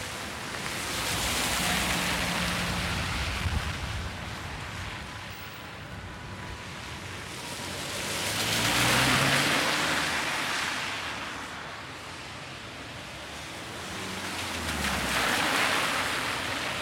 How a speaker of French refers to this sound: J'aime le Calais parce qu'il euh, y a la humidité, il y a du beau vent, il y a la jeune fille.